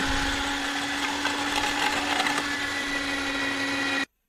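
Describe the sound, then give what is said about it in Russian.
A kitchen shredding machine grating parmesan cheese runs steadily with a loud, constant motor whine and a grinding, rattling texture, cutting off abruptly after about four seconds. No one speaks. “какие-то, блядь, слайсы, куски какие-то непонятные выплевываются из этой хуйни.”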